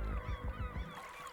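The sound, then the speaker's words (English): A voice mimics an angry seagull, letting out a rapid string of harsh, honking squawks, then trailing into a thinner, drawn-out screech. “snatches a seagull out of the air and starts squawking at it angrily.”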